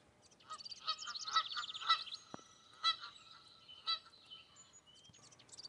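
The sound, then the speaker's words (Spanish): A duck quacks in a series of nasal, honking calls, about one per second, fairly loud, with no talking. “Cuac, cuac. Hola, Gollito. ¿A dónde vas? dijo Donato el pato.”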